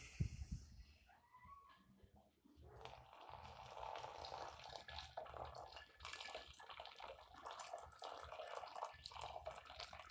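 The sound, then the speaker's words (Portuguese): Water pours steadily through a coffee filter as coffee is brewed, a continuous trickling rush that starts after a couple of seconds of light handling noise and keeps going to the end. “Eu acho esse som do café tão hipnotizante.”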